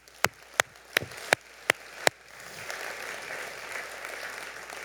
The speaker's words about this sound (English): You guys give our, um, our volunteers a big round of applause.